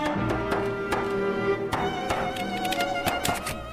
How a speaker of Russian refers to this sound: Руки безжалостно разминали стельку, стучали молотком по розовым бочкам и носикам.